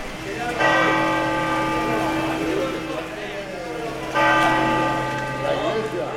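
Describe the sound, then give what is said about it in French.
Large bells of the cathedral of Santiago ring out loudly, with a rich, humming tone. A second peal strikes about four seconds in, and faint voices murmur in the background. “Et les cloches sonnent à la cathédrale de Santiago”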